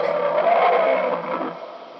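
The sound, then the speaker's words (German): A single drawn-out, wolf-like howl from some unknown creature, a rough sustained wail lasting about two seconds before trailing off, with no voices. “Bestimmt nur ein Wolf. Für mich klang das nicht wie ein Wolf.”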